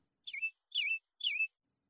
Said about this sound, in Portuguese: Parece o som de um pássaro no terceiro andar. Eu olho para cima, mas não ouço mais nada.